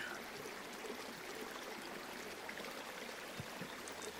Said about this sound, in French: et tandis que le chant des oiseaux, le murmure des feuillages, le son constant et rassurant de la rivière